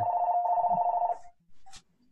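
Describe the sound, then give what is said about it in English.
A telephone rings loudly, a steady electronic trill in two quick bursts that cuts off abruptly, followed by a soft click and near silence. “Sorry about the phone call”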